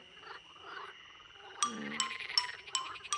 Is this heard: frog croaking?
yes